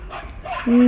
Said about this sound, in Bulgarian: Едни малки кученца лаят едно голямо. Малките кученца са много смешни.